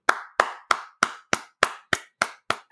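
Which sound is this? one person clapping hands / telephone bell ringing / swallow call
one person clapping hands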